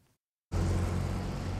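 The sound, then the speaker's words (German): After a brief silence, loud, dense roar of road traffic cuts in abruptly and holds steady: cars speeding past on a four-lane road, two lanes in front of and two behind a central traffic island where Brandenburgische Straße crosses Konstanzer Straße, a continuous rush of engines and tires with a deep low rumble underneath. “Vierspurig rasen Autos vorbei, je zwei vor und zwei hinter mir.”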